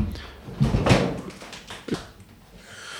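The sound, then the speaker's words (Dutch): A plastic water bottle drops and clatters onto the floor with a dull thud and a brief second knock. “voor de luisteraars, er valt een fles water op de grond en ik probeer voor je water in te schenken.”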